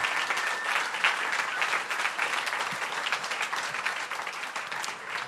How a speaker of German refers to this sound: Und deswegen lasst uns doch mal all denen Applaus geben, die sich im Hintergrund einbringen.